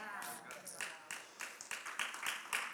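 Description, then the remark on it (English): Scattered hand claps from an audience begin to break out, irregular and building slightly, a light patter of several people clapping. “Wait, before you clap.”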